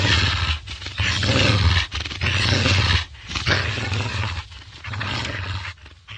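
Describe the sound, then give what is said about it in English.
Pigs grunt and squeal loudly as they burst out of their pen and try to get away, a rough, continuous commotion of harsh noisy bursts broken by short pauses, with deep throaty tones underneath and no talking. “Grunting and squealing, and trying to get away as fast as they could.”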